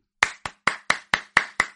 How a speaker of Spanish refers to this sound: Aplausos, aplausos, por supuesto.